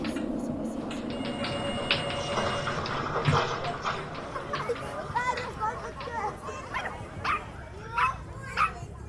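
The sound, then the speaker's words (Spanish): A puppy yips and whimpers in a run of short, high, wavering cries, louder toward the end, over a steady noisy rumble in the background. “Hasta que una tarde cambió y me dejó adoptar al perrito.”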